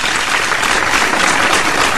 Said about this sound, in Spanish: En todos lados, fuerte el aplauso acá en el estudio que hoy está con todo.